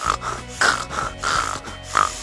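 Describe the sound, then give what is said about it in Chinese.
A person imitates a pig with a series of loud, rough snorting grunts, about four nasal bursts in a rhythmic pattern with short pauses between them, and no speech. “接下来，我就给大家用我与生俱来的变声器模仿一下动物的叫声，比如说给大家模仿一只猪。”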